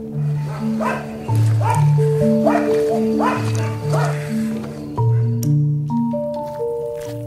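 Several stray dogs bark at night in loose, overlapping bursts through the first half, gathered at garbage containers and trash piles left uncleaned in the streets, while steady sustained musical tones play underneath and carry on after the barking thins out.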